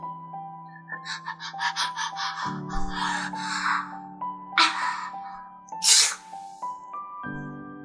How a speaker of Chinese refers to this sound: 但是月宫实在是太冷了，唐明皇忍不住又打了一个喷嚏。